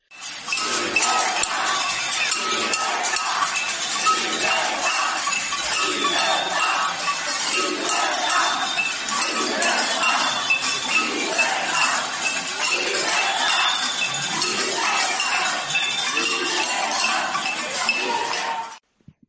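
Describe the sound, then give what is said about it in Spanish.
A street protest crowd on Calle Núñez de Balboa in Spain bangs pots and pans in a dense, continuous metallic clatter, rapid overlapping clinks filling the whole stretch at steady loudness, with faint voices mixed in underneath. “vieron ayer en la calle Núñez de Balboa, que se está convirtiendo en el epicentro de la revuelta popular que amenaza a partir del día 23 con reproducirse por toda España”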